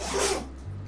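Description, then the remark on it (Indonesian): A dog lets out a single quick, breathy sneeze, a sharp hissing burst that fades within half a second into a steady low hum. “please forgive the background sound karena itu anjing gue sedang haji kayak haji gitu”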